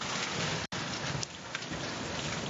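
Heavy rain from a storm in Blumenau, filmed by a resident, pours down in a dense, steady roar filling the whole frequency range, with gusty wind surging through it and a brief cut near the start. No voices are heard.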